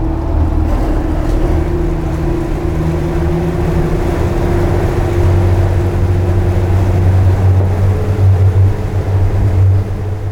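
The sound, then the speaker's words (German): A powerful speedboat engine drones steadily as the boat races at high speed across the open sea, with a deep continuous roar, low tonal hum and rushing wind and water noise throughout, no voices. “Die geben richtig Gas. Ich glaube, ich bin noch nie so schnell übers offene Meer gefahren.”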